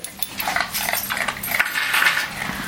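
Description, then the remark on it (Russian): A guide dog vocalizes with a string of high-pitched whines and whimpers that rise and fall over a few seconds, with no one speaking. “Меня, когда я получала собаку-проводника, меня очень волновало, а как собака, может, сможет ли она работать в незнакомом месте”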